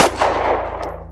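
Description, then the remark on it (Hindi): A loud, sharp gunshot from a guard's gun, fired by an assistant driver at a woman, cracks out and then fades slowly into a long rumbling tail, with a faint low hum running underneath and no voices. “assistant driver जो मुझसे थोड़ा पीछे था उसने मुझे ऐसे देखा तो वो गार्ड की बंदूक उठा के जल्दी से मेरे पास आया और सामने उस औरत पे फायर कर दिया”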